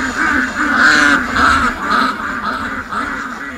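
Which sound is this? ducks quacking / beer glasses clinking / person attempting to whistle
ducks quacking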